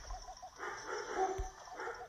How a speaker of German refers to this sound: Die Hunde bellen gerade ein bisschen laut unten.